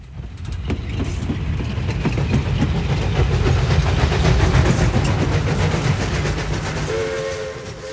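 A train rolls steadily along the tracks, a loud continuous rumble layered with rapid rhythmic clacking of the wheels, and a brief tonal horn-like note surfaces near the end.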